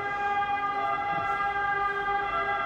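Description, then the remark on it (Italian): An ambulance siren wails steadily as it passes outside a house, its loud, sustained tone filling the whole moment without a break. No one speaks over it. “Ma c'è l'ambulanza che abbiamo uscito a casa nostra?”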